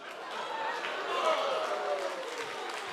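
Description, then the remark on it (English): An audience claps, a dense, steady wash of many hands that rises slightly mid-clip and holds for about three seconds, with faint crowd murmur mixed in. “Stop. Don't clap.”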